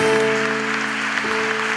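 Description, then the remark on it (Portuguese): A church audience applauds the Lord during a morning worship service, a dense, steady wash of clapping, with a sustained keyboard chord holding underneath throughout. No one speaks. “Nós te aplaudimos nessa manhã, Senhor.”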